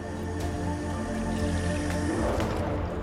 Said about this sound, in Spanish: Apagó el televisor, fue hasta la cocina y se sirvió un vaso de agua fría de la llave.